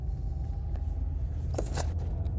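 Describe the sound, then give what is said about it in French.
A car goes by outside, a steady low rumble with a short burst of tire hiss swelling and fading toward the end; no voices. “Oh la voiture!”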